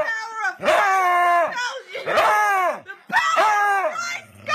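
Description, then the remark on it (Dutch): A dog that appears possessed lets out three long, strained howls in a row, each warbling and dropping in pitch with a rough, growling edge that sounds eerie and unnatural, loud, as a woman tries to exorcise it with a cross. “zo'n YouTube filmpje van een hond die helemaal bezest lijkt”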